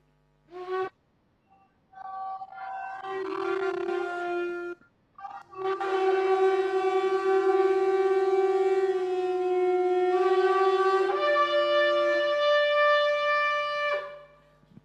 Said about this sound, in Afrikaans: maar in Israel die hele dag klink dit uh soos die ramshorings wat blaas. Daar's hy blaas julle vir ons asseblief.